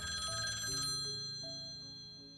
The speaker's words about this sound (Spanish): yo escucho el teléfono, abro los ojos, ruedo y me caigo. ¡Oh! Empiezo a gatear así hacia el teléfono en forma de gusanito.